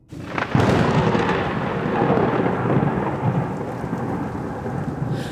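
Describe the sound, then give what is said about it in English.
A sudden loud crack of thunder from a lightning strike breaks in and rolls on as a deep, sustained rumble, with steady rain hissing underneath throughout. No voices are heard. “At that very moment, lightning struck and thunder roared, so loud that I jumped and blinked my eyes for just a second.”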